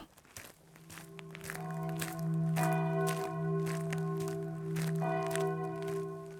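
Church bells ring from a church on a small island in the middle of Lake Bled, with several overlapping, sustained tones, struck again every second or so and ringing out steadily across the lake. Soft crunching footsteps can be heard underneath.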